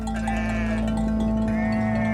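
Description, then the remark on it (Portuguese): Sheep bleat in drawn-out, wavering cries, two long calls back to back over a steady low hum, fairly loud with no talking. “Pastor de ovelhas, Davi se dedicava aos animais e à música.”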